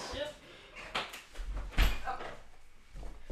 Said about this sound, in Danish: Jeg tror lige, at altså, lukker døren, sådan ja. så, at øh, vi ikke lige får køkkenlyden med.